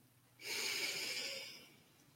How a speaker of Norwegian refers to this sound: Så neste gang du nå ganske straks trekker et bevisst pust inn, så forestiller du deg at du puster lys inn i kroppen din.